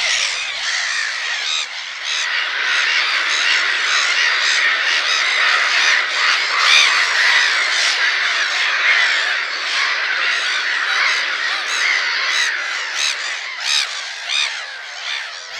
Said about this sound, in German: also so im Schutze der größeren Lachmöwenkolonien, die einen enormen Krach entwickeln können.